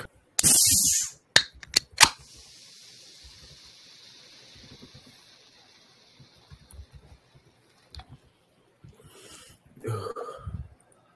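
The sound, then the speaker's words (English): A freshly opened Coke gives a sharp hiss and a couple of crisp pops, then a steady fizzing that slowly fades, followed by some faint handling noises. “The fizz sounds like a round of applause.”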